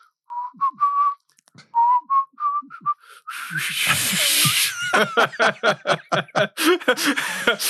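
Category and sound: human body sound, person whistling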